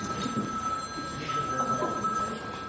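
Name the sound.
telephone ringing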